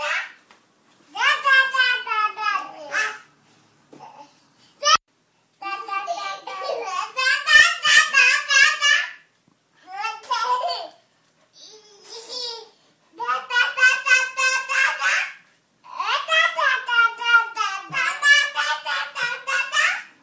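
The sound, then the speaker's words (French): Two twin toddlers, about 18 months old, standing face to face near a fridge, babble back and forth in lively pretend conversation, high-pitched, expressive bursts of nonsense syllables with short pauses between turns, clear. “parler pour de faux, le, jeu à parler hmm. qu'on entend chez les bébés”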